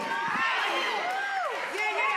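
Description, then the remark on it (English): A church audience shouting all at once during a sermon, a dense wash of many overlapping voices with pitches sliding up and down, loud and steady for the whole moment. “I don't like the way y'all are shouting right through here.”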